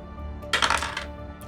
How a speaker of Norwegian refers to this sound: Ok, Trill. nå fyker terningen i veggen.